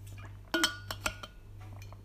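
Someone drinking water from a glass: a few sharp, bright clinks of glass being picked up and set down, with soft handling noises in between over a steady low hum, and no talking.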